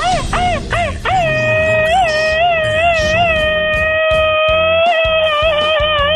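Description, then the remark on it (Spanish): A loud Mexican machine-gun grito: a few quick yelping bursts, then one long, high, wavering cry held for several seconds over a rapid rhythmic stutter underneath. “Ahí está tu grito ametralladora”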